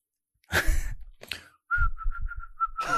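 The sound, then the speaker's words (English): After a breathy rush of air, someone whistles a quick run of short, repeated chirping notes, a person imitating a bird call, with no talking. “Make a bird noise”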